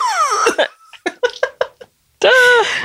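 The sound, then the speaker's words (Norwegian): A quick run of four or five short, sharp coughs, loud, made with the tongue stuck out, framed by strained vocal sounds before and a loud, harsh voiced outburst right after. “Det er så gøy når man hoster med tunga ut.”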